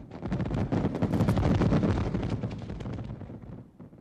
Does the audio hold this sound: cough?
no